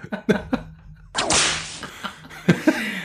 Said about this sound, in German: War es der 242. Peitschenknall